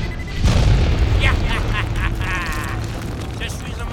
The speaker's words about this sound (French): Explosions